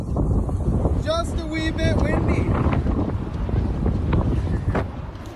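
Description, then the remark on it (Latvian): Giant wind turbine blades at a wind farm drone in a steady, low rumble at night while gusty wind buffets the microphone throughout, with a few brief high chirping tones near the start. “Mūsu nogurušos prāts ar dunošu skaņu un ēnām, kas tev skrien pakaļ, hipnozēja milzīgie vēja ģeneratoru spārni.”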